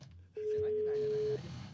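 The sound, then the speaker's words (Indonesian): A single steady telephone dialing tone hums for about a second as a call is placed to a radio announcer, clear and prominent, with faint background murmur and noise before and after it. “Dan Sekarang udah ada udah ada penyiar yang kita lagi telepon.”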